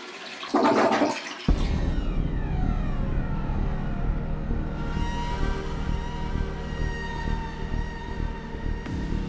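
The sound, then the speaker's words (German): A toilet flushes loudly, opening with a sharp burst of rushing water that settles into a steady gurgling swirl as the bowl drains and refills, with no voices present. “Schunke Toilette.”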